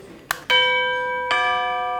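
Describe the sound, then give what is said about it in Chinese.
A wireless doorbell, whose transmitter holds a small low-power wireless MCU microcontroller, chimes: a short click, then a bright, sustained electronic tone, followed about a second later by a second ringing note that overlaps the fading first. “像是这颗无线门铃发射器里头带有小小一片无线发射功能的 MCU，特点就是低耗电，传输距离够长，在任何地方按下接收器门铃就能响起。”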